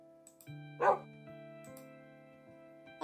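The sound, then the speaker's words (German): A puppy gives one short, sharp bark near the start, clear, set against steady sustained background tones that continue to the end. “Und dieser Welpe ist auch gleich mein Freund.”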